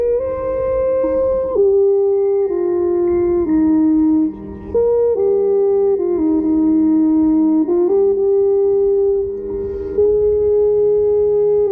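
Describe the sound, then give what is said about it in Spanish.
A tuba plays loud, sustained brass notes, stepping through a slow melodic line with each note held for a second or two, with no voices; recorded in July 2017 with a headcam on the tuba player. “hermoso, hermoso, … en el 2017 tuba Headcam”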